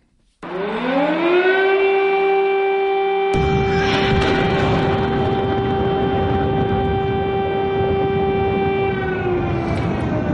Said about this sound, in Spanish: Cuando las sirenas de tus vecinos oiga sonar, prepárate por si acaso porque no llega nada bueno.